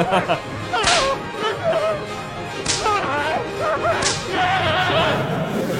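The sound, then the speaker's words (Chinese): Three sharp, snapping whip cracks ring out about a second and a half apart, each a bright, sudden lash standing out over a steady, busy background. “拿着小皮鞭啊，持续抽打着运营商，小跑在改革的大道上。”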